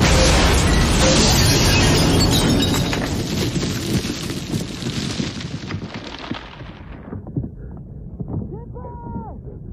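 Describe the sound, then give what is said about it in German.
A loud, roaring blast of film explosions in a combat scene fills the first few seconds, then the sound goes dull and muffled as the highs drain away in an ear-ringing deafness effect, leaving a low rumble with a faint wavering tone near the end. “Unter anderem ja sogar, dass während oder kurz nach den Explosionen”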